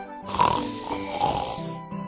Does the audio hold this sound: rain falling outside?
no